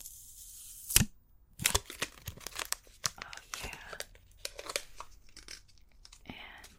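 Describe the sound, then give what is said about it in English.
Crinkly peeling of plastic wrap off a power brick, a burst of tearing followed by a run of irregular crackles and rustles, fairly loud, with no talking over it. “And here's the power brick underneath. Typical power brick. Get some peeling noises.”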